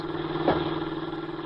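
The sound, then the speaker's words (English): A jeep engine drones steadily as it drives along a dark road near a village by the Black Forest, returning to a military base, a low rumbling hum with a regular pulsing beat and a brief louder surge midway, with no voices. “In a jeep with Corporal Harry Marks, he is returning over the dark road to his base.”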